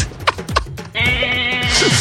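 A goat lets out one long, wavering, nasal bleat that holds for about a second, loud, after a couple of brief scuffing sounds.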